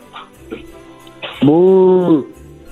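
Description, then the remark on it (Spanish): A person imitates a cow with one long, loud, steady vocal moo lasting under a second, preceded by a few soft vocal noises. “¿Puedes hacer el puedes hacer el ruido de una vaca?”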